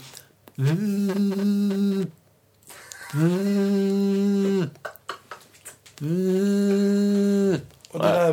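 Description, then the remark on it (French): A voice imitates an iPhone ringtone, humming three sustained, melodic phrases with short pauses between them, fairly loud, with no other speech. “Tu quoi, tu peux nous faire l'iPhone L'iPhone, c'est plus subtil, c'est plus.”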